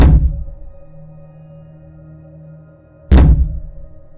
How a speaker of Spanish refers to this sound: Los golpes, que parecían provenir de algo, golpeaban en la parte de arriba del coche. Era cada vez más rápidos, más fuertes.